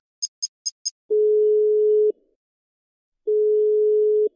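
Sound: phone call ringing tone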